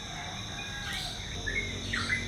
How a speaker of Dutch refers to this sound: En dan loop ik onder de grote jackfruitboom door. Hij hangt helemaal vol met jackfruit. En hier zitten zoveel vogels in de boom.